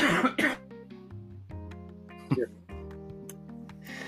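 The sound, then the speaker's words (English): Harsh, close-up coughing right into the microphone: a quick double cough at the start, then another sharp burst partway through, with a faint steady tonal hum underneath. “His face is right here, coughing right directly at me.”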